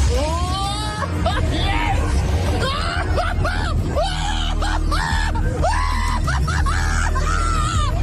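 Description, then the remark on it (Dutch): Repeated high, wavering screams and shrieks rise and fall over a steady loud rumble of machinery and crowd noise on a fairground ride, with several voices yelling at once throughout, while a man broadcasts live on the radio from the ride. “Nou, dat is het moment dat hij live op de radio is terwijl hij in een kermisattractie zit.”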